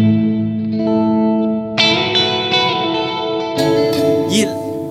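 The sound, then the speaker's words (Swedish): Sustained electric guitar tones played through an effects pedal, drenched in a warbling chorus-like, almost vibrato modulation, with new chords struck around two and three and a half seconds, ringing loudly and continuously with no speech. “nästan som vibrato. Ja, blir det någon sån här konstig, härlig eller koruseffekt.”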